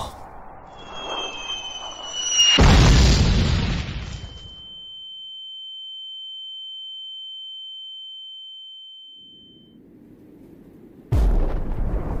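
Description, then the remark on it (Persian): A descending whistle ends in a loud mortar blast that rumbles away, followed by a long high-pitched ringing tone, then a second heavy explosion bursts in at the end. “به نظر زودتر از چیزی که باید به صدای خمپاره خو گرفته بود”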